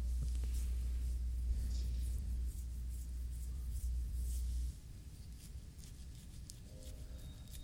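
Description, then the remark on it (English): Soft, irregular scratching of skin on the face and ashy elbows, with brief dry rasps coming in short bursts over a steady low rumble that drops away partway through. No one speaks. “There's just lots of noises of me scratching different areas of my face and elbow.”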